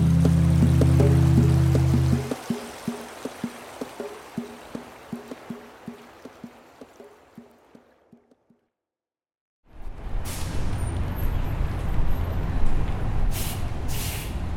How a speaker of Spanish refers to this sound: Esto es algo nuevo. Usualmente, si han escuchado otros episodios de este podcast, empezamos con el audio de un río, de una lancha, pero esto es que un bus. Una buseta de hecho.